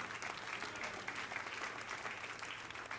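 A large audience at a church service applauds loudly after being asked to say Amen and clap, a dense, steady roar of clapping hands that continues without pause from start to finish, with no voices rising above it.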